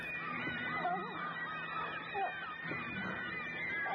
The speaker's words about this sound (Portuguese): Caralho, mano, esses passarinhos são muito mal, velho. Os periquitos. Esses pássaros são piores que urubus. É os periquitinho, velho.